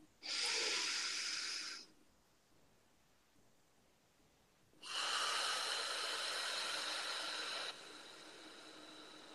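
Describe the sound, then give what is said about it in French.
A loud breath in through the nose, a pause, then a long airy exhale that tapers softly at the end, with no talking. “Une respiration.”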